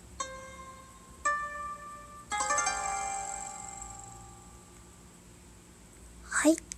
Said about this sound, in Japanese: 和風って書いてありますこういう効果音が入れられるので試してみました